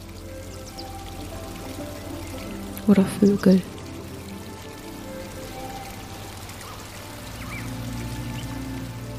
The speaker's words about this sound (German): Und so gehst du an diesem Flüsschen entlang und du siehst schon, dass das Flüsschen in einem kleinen See mündet.